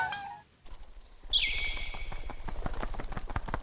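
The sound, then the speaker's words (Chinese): Bright, high-pitched chirps of a little bird ring out in long sustained whistles, the later ones dropping slightly in pitch, over a steady pulsing rumble of background noise, as the bird strains to carry ants up into the sky during a storm. “小鸟奋力把它们都叼上天空，飞到了云层的最上面，躲过了突如其来的暴风雨。”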